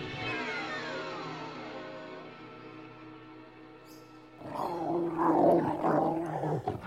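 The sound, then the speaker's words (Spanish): A dog growls in a low, steady rumble for several seconds, then breaks into a louder, rougher snarl near the end. No one speaks. “Pobre Wolf, tu ama te hace llevar una auténtica vida de perros, pero no temas”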